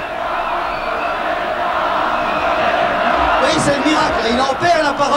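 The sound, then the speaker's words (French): A large crowd welcoming home the Red Devils, Belgium's national football team, cheers and roars continuously, a dense wall of voices that swells with louder shouts and whoops in the final seconds. “Il regarde les gens qui l'acclament.”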